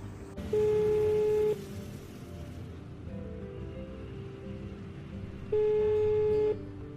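A telephone ringback tone sounds twice, each a steady one-second beep separated by a long pause, clear over a low, rumbling background hum, as a bored child at home phones a friend.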